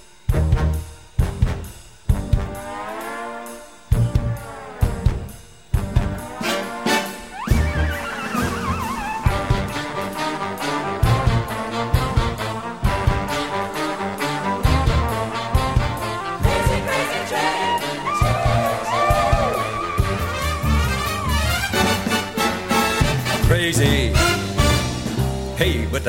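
A loud big band arrangement of a heavy metal song, with punchy brass stabs and swooping horn lines over a driving, steady drum beat that keeps up throughout.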